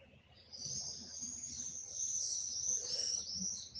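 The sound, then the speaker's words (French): A dense chorus of high-pitched birdsong in the morning fills the air continuously, many chirps and trills overlapping, with a faint low background hum beneath. “Nous entendons encore les oiseaux que en fin de journée sont à peine audibles, noyés parmi d'autres bruits.”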